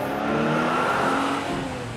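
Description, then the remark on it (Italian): A blue car's engine revs up loudly as a man drives off to work early in the morning, its pitch climbing in steady harmonic bands before it pulls away and settles, with no voices over it. “tutte le mattine si svegliava molto presto e andava a lavorare con la sua macchina blu.”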